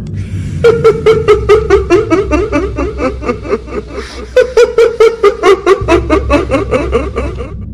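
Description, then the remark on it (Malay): A long, eerie, high-pitched cackling laugh in rapid rhythmic bursts, loud, running in two extended bouts separated by a brief pause, over a low rumbling background, as an office door slams shut hard. “Saya tak sempat nak capai, pintu tu terhampas dengan kuat diiringi dengan hilayan yang panjang.”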